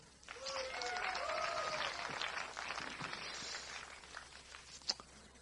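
An audience at a church sermon breaks into sustained applause, a dense wash of clapping that builds quickly and holds steady for several seconds before thinning out, with a few scattered voices and whoops mixed in.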